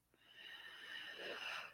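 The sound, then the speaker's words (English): A single long, deep, intentional breath drawn in as a breathing exercise for coping with grief, a steady airy rush that swells and holds for nearly two seconds, with no talking. “just taking a big intentional breath and just letting it go.”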